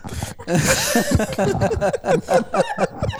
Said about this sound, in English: Somebody just snorted. There's I heard it. There's the I just heard her snort.